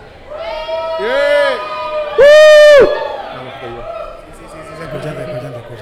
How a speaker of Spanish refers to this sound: Estamos y, con público, oye, se escucha el público cuando, cuando griten a ver si se escuchan.